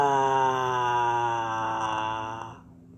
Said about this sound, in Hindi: जब शेर ने बैल की भयानक आवाज़ सुनी तो उसने सोचा जरूर जंगल में कोई खतरनाक जानवर आ गया है